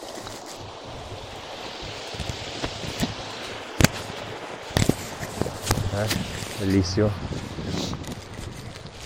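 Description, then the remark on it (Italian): A stream flows steadily, its continuous rushing hiss filling the whole scene, broken by a few sharp clicks and a brief spoken word near the end. “Sentite il rumore del, del ruscello?”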